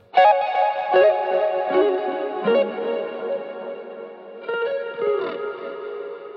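Sustained electric guitar notes drenched in reverb and delay, with a shimmering chorus-like texture. The guitar part is doubled and panned left and right, with added wobble, and the second half of the melody is harmonised. New notes strike every second or so while echoing tails blur together. No voices.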